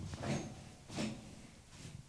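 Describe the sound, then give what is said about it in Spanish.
A voice imitates a chair being dragged, making three short scraping, hissy bursts with pauses between them, fairly quiet. “O sea, porque se oyó como una silla.”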